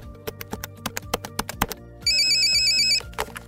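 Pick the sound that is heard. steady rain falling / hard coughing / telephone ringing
telephone ringing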